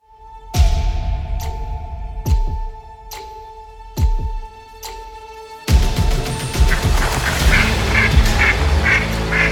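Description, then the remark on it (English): A marble white and hot pink duck call blows five loud, evenly spaced quacks, then breaks into a rapid, continuous run of quacking and chatter, clear with no one talking. “one of a kind marble white and hot pink dunk call. It sounds incredible.”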